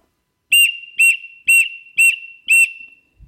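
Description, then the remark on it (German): Five short, sharp whistle blasts sound in an even, quick rhythm, loud, each about a fifth of a second with a brief ringing tail between them, demonstrating the repeated-short whistle signal. “Und zwar starten wir jetzt einmal mit der Variante mehrfach kurz.”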